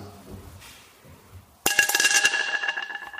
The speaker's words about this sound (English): And it splashed very quickly through the water to the bottom and made a noise.